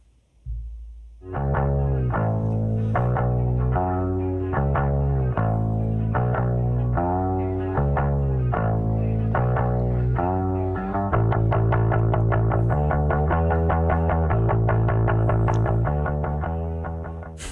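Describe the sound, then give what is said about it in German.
A band plays steadily with no talking, a fretless bass gliding smoothly and steplessly between low notes and chopping eighth notes under chorus-drenched guitar chords and a driving pulse that stays loud throughout. “Und dann diese Slides zum Beispiel, die man da hört, da hört man eben dieses Stufenlose”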